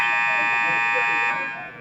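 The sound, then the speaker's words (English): A loud, harsh electronic buzzer blares steadily for over a second to end a speaking segment, then trails off, with faint talking murmuring underneath. “We got the buzzer this week. That's me shutting up now.”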